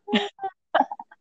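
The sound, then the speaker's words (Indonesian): A voice imitates its own sudden crying on being declared passed, in front of a laptop: two abrupt, gasping sobs followed by a quick cluster of shorter catches, fairly loud, with no other talk. “ini suara nangis gue tuh literally langsung eh kayak gitu”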